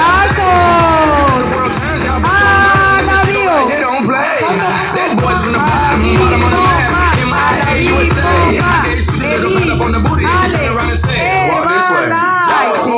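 A crowd claps and cheers loudly and without pause for sponsors being introduced, rising whoops and shouted voices riding over a dense, steady wash of applause.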